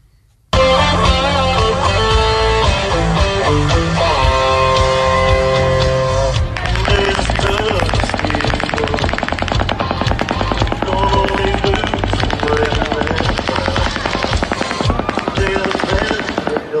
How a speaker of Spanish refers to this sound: Pero se escucha claramente la diferencia en los sonidos de los dos calibres distintos, de que se ve que... Al mismo tiempo, tú dices. Simultáneamente.